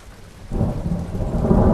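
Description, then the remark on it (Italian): Steady rain hisses as it begins to rain, while a deep thunder rumble swells in after a quiet start and rolls on continuously, fairly loud, with no voices. “Le propongo una passeggiata disintossicante sul lungo fiume, ben sapendo che non accetterà, perché sta incominciando a piovere.”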